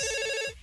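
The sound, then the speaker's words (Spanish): A telephone rings for an incoming call with a bright, steady electronic tone stacked in harmonics, sounding for about half a second before cutting off abruptly and leaving a faint tail. No one speaks. “No, tenemos llamada, tenemos llamada.”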